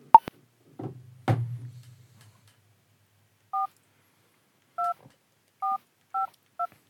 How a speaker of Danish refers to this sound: Og så skal vi ringe til ham, og hans nummer er her.